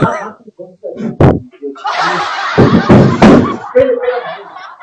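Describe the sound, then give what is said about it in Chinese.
Loud banging on a factory's iron shutter gate: one sharp knock, then a harsh, rattling metallic clatter broken by several heavy thuds, with faint murmuring voices underneath. “什么声音？ 哦，开门，开门。”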